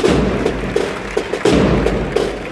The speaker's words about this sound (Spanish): me gusta cómo suenan los, bombos de, las agrupaciones musicales. Ve cómo es.